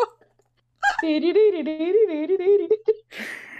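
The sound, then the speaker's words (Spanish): A person imitates a rooster's crow with a drawn-out, wavering voiced call like 'kikiribú' lasting about two seconds, fairly loud. A brief breathy noise follows. “Uno era básicamente una gallina gigante, un, un gallo gigante con Kikiribu.”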